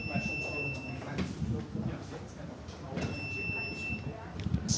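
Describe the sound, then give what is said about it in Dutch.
Someone passes through a revolving door turnstile amid busy station ambience, with a couple of mechanical clunks, steady electronic tones, and a low background murmur of crowd noise and voices. “We hebben twee microfoons en één draaideur.”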